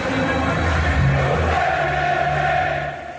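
A large stadium crowd at an international football match claps along amid a dense, steady roar of chanting voices, loud throughout, then briefly tapering off at the very end.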